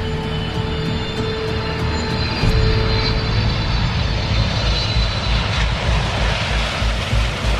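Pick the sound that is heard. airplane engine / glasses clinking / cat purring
airplane engine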